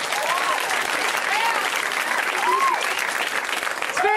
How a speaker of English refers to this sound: You can clap for me if you want to.